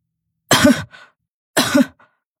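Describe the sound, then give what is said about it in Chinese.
An old woman coughs twice, each a harsh, throaty burst followed by a short raspy tail, spaced about a second apart with silence around them. “老夫人咳嗽了两声”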